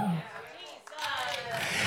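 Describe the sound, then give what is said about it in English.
An audience applauds in a steady, dense wash of clapping that swells toward the end, with murmuring voices and crowd noise mixed underneath. “Y'all ain't got to clap.”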